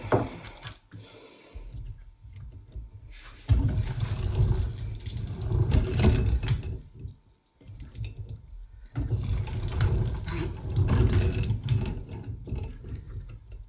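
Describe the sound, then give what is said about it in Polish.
A hand-cranked meat tenderizer whirs and rumbles as its rollers turn, flattening meat for a pork cutlet, with a soft squishing of meat passing through; the steady mechanical churning pauses briefly twice before resuming, moderately loud. “E, hałasu jest tylko tyle, co słyszymy samo obracanie korbą i prześlizgiwanie się e, mięsa pomiędzy wałeczkami.”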